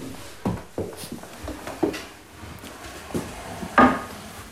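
Someone climbs onto a wooden chair to reach the top shelf of a bookshelf: a series of irregular knocks, creaks and scuffs over a few seconds, ending in a louder, rougher creak as weight settles. No one speaks.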